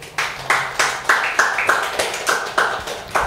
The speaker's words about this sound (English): Can we give the Lord a clap offering?